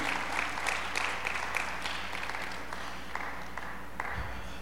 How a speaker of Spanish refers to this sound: ¿Alguien puede aplaudir al Señor esta tarde? Aleluya.